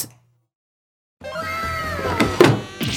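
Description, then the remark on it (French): After a moment of silence, a drawer slides open with a creaky, squealing scrape, ending in a couple of soft wooden knocks. It is fairly loud, with no voices. “Ah, c'était pas le bon tiroir Pourquoi je suis tombé sur celui-là”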